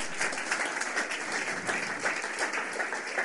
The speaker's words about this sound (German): Äh, vielleicht könnt ihr mal kurz aufstehen, ihr Lieben. Und ihr alle anderen, bitte gebt ihnen mal einen ordentlichen Applaus.